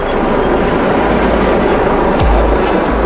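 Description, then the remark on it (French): A police helicopter hovering overhead drones loudly and steadily, a dense, continuous roar with a low throb underneath and faint rhythmic chopping in the upper range, with no other sounds breaking through. “Il y a l'hélico qui est très présent, hein, c'est pénible.”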